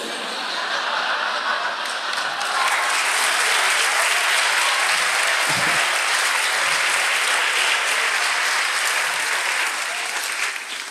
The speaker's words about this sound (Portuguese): Vocês aplaudiram uma piada de estupro, hein?